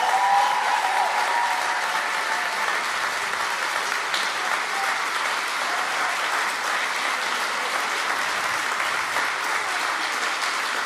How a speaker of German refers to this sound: Deswegen ist der viel größere Applaus an Jesus Christus, der unser Sieger ist, der am Kreuz für uns gestorben ist. Komm, lass uns Gott mal die Ehre geben durch unseren Applaus, denn ihm gehört die Ehre.